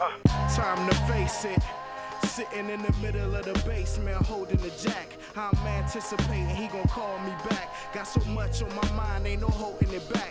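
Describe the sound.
A hip-hop song plays loud and close, with a male voice rapping rhythmically over a steady beat of punchy bass-heavy drums and layered melodic samples.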